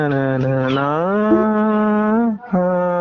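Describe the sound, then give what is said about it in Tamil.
A lone voice hums the opening alaap of a song, a long, drawn-out melodic line, the pitch gently rising and holding, then breaking briefly before one more sustained note. No words are sung. “அந்த ஃபர்ஸ்ட் அந்த ஹம்மிங் வரும்ல ஹம்மிங்கா அது அண்ணா ஆலப்பன்னு சொல்லுவாங்கல்ல”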